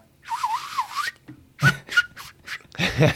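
A breathy, wavering attempt at whistling wobbles weakly for about a second, followed by several short puffs of air as someone tries again without producing a clean tone.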